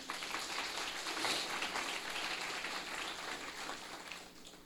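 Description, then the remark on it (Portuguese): A church audience, asked by the preacher to applaud Jesus, claps together in a steady, dense wash of applause lasting several seconds, holding fairly even in loudness before tapering slightly toward the end, with no voices standing out. “Alguém pode aplaudir Jesus?”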